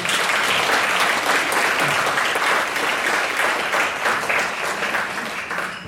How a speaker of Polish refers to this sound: wspaniały artysta e, lubelski, który jest tutaj gdzieś też na, na sali, więc proszę bić mu brawo, tak jak co roku.